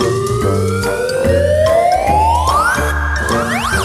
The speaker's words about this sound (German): Das ist übrigens eine äh, Gleitflöte, die da äh, ihre Zwitschergeräusche macht.